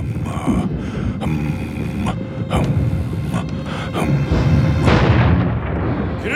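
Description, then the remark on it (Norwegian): Cannons fire in a rapid volley, several heavy booms in quick succession over a continuous low rumble, loud, with the last blast echoing out. “Medhjelpere ved handelen som Porsch hadde invitert, hopper forskrekket i været hver gang kanonene dundret.”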